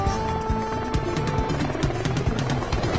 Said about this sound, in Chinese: Dora 是想让直升机降落，可是风的声音太大了，直升机听不见它的声音。